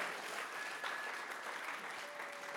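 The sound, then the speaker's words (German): An audience claps steadily for a couple of seconds, a dense wash of many hands at moderate volume with no voices over it. “Komm drei Leute klatschen, Halleluja, preis den Herrn.”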